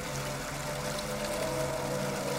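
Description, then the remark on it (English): A shower runs steadily, a continuous hiss of spraying water at an even level throughout, with no voices. “The sound of running water.”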